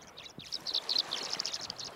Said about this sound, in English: As the sun sets over the Connecticut River, an astounding natural spectacle unfolds as many as 300,000 sparkling blue swallows, tree swallows, wing their way from miles around to roost for the evening on Goose Island near Old Lyme.